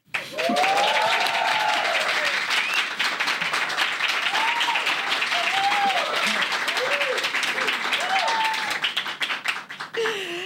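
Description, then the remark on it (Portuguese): A crowd applauds loudly and steadily, dense clapping filling the whole stretch, with rising and falling cheers and whoops breaking through before the noise starts to thin at the end. “Eu quero ouvir o barulho da plateia.”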